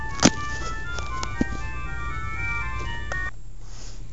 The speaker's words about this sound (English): oh sorry about that. Phone call.